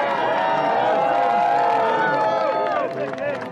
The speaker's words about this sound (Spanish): Una bienvenida cálida, cobijada por aplausos, por gritos de aliento, de aceptación.